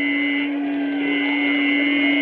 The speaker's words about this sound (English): What's that? There's a jet of flame springing from the mirror and it leaps right at the advancing men. It strikes him head on.